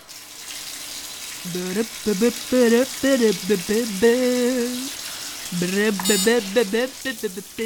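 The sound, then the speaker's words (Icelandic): A man sings a melodic tune while a steady hiss of running shower water fills the background, the spray continuing under his voice throughout. “Nú spurningin hvort styrtusöngurinn haldi sig í nútímanum eða fara aftur í fortíðina.”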